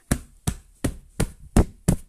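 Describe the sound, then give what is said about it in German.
Six soft, muffled thumps land in a steady rhythm as a hand knocks on a duvet, dull rather than sharp, with no talking. “Ich klopfe auf meine Bettdecke.”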